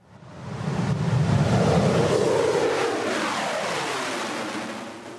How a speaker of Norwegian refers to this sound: Dette er lyden av Russlands nyeste kampfly, en MiG-35, som snart vil være å se i nordområdene.